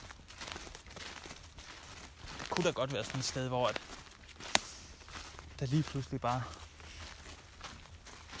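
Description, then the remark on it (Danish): Soft, squelchy footsteps crunch and sink into wet leaves in an uneven rhythm, with damp rustling continuing beneath a man speaking throughout. “Han synker lidt ned i bladene her”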